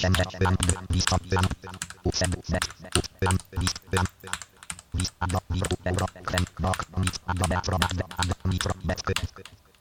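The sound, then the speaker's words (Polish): Steady typing on a computer keyboard: a dense run of sharp, clacking keystrokes at an irregular but brisk rhythm, fairly loud, continuing for the full stretch over a low steady hum. “A nie, bo ja słyszę readboarda twojego.”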